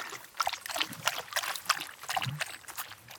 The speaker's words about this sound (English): Come across this beautiful little babbling brook that runs through the trail.